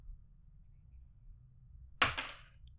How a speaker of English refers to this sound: If I roll a 2, I'll pull from the list of books. If I roll a 3, I'll pull from the list of video games. And if I roll a 4, I will pull from a list of TV shows. So all right. Let's hear it. Try to make it loud.